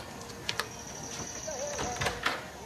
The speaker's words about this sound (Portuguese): Batem à porta e Ermelinda vai atender.